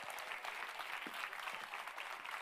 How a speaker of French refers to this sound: Et je vous invite à tous les enfants maintenant de venir sur scène avec moi. Allez tous, venez, venez. On les applaudit, s'il vous plaît, on les encourage.